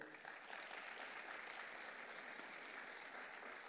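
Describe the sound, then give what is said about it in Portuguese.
A church audience applauds the Lord steadily, a dense, even wash of many hands clapping at once that holds without pause and sounds full throughout. “Aplauda ao Senhor.”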